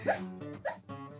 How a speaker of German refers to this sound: Das ist mein Hund. Was hören wir da im Hintergrund? Ich sagen, höre ich mein da Hund? Hund? Mein Hund, der träumt.